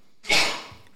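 A single sharp sneeze bursts out, loud and breathy with a hissy high edge, then trails off quickly into quiet.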